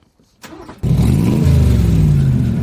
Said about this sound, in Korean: 오토바이 시동 걸고 이제 출발하는 소리입니다.